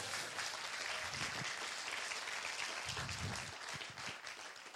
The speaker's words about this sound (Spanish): ¿Cuántos le dan un aplauso al Señor por eso?